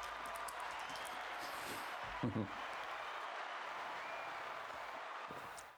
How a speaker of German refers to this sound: Ich habe gesagt, yes, komm, mal, mach mir einen Applaus.